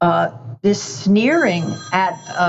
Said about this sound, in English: I'm sorry, that's my phone.